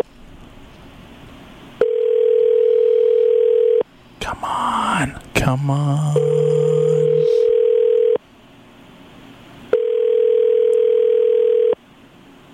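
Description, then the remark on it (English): A telephone ringback tone purrs in three long, steady buzzes about two seconds each, separated by pauses, as a man calls a personal phone line and mutters impatiently between the rings. “It's ringing.”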